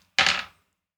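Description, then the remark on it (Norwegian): Two ten-sided dice are rolled onto a hard surface to check whether an action succeeds in a game, landing in one quick clatter that fades within half a second. No one speaks. “Nå kaster jeg to eh, tisidige terninger her.”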